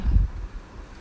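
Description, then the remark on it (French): A brief gust of cold wind buffets the microphone on a very cold day, starting with a loud low rumble that quickly eases into a steady, breathy hiss. No voices. “et même juste avoir le vent frais qui te fouette euh, au visage, euh, ça fait du bien.”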